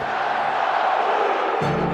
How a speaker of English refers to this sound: This one on the Mississippi, in the shadow of the St. Louis Arch. October, and the leaves turning, and a banner raising, and a crowd roaring as the Blues celebrated their first ever Stanley Cup championship.